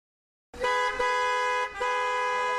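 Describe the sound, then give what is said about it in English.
Loud, sustained car horns blare in close succession in busy Friday evening traffic, one long honk breaking briefly before another picks up, with no voices. “What a busy traffic on this Friday evening!”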